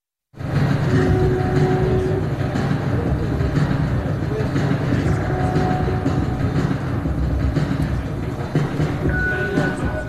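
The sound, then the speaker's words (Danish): A sound art installation made from 150 railway sleepers in Haslev, South Zealand, gives off a steady, train-like rumble with soft clattering and a few faint sustained tones. It holds at an even loudness throughout. “Sådan her lyder en øh, kunstinstallation i øh, Haslev.”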